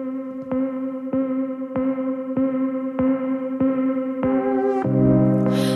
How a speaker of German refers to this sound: Vorher hören wir einen Track von ihr, habe ich vor ein paar Wochen schon gespielt.